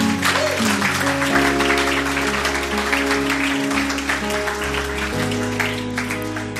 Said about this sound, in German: Komm, lass uns denen, die ihre Hand gehoben haben, einen fetten Applaus geben.